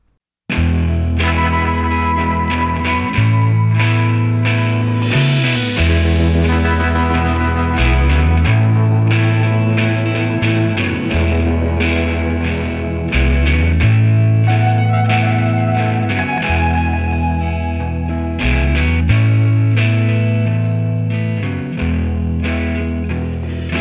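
A recorded rock song plays loud and steady for its whole length, a gritty, distorted band sound with a thick bass line repeating in a regular pattern and no voice.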